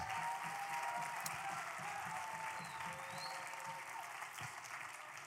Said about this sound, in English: You have some of the greatest pastors on planet Earth. Can you give your pastors a round of applause? Come on.